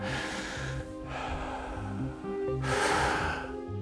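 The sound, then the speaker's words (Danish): Loud breathing in a steady rhythm, a person's own breath used to time sound editing: long noisy inhales and exhales with brief pauses between them, over a faint repeating low-pitched pulse. “så var det ens eget åndedræt, man brugte.”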